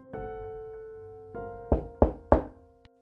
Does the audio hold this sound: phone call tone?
no